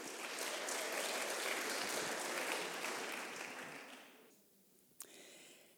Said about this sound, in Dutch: Ik wil heel graag applaus voor de volgende pitch in dit thema. En dat is hoera voor hybride.